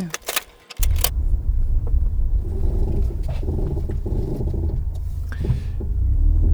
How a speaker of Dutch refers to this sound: Ik moet wel zeggen dat Merel goede inparkeerskills heeft.